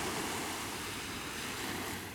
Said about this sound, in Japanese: ちょうど今時間はもう夕暮れ時黄昏時ですけどねあの海岸に座り込んで先ほどからもうかれこれ10分以上ですかねぼんやりと海を眺めております